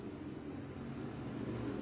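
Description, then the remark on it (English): A field of race cars roars down into turn one of a race in a thick, continuous wall of engine noise, steady and loud throughout, with no voices over it. “as the field goes down into turn number one.”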